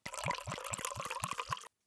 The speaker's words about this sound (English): You sit down on that stool next to her and put the bucket under her. Uh, but before you start, I want you to wash and brush her udder and teats with warm water.